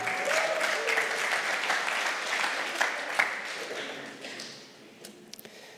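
A crowd claps steadily in a dense burst of applause that gradually thins out and fades, ending with a few scattered individual claps.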